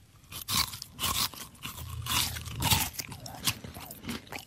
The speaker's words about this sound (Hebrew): זו הייתה הלעיסה השנייה.